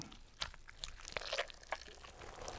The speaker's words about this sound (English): began to convulse as a stringy green substance poured from her mouth into her hands, forming into the shape of a ghostly figure bathed in a slight green glow.